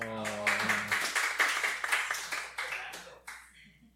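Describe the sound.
A short burst of scattered hand clapping from a small group, irregular and fairly loud, lasting about three seconds and fading out, with a voice speaking briefly at the start.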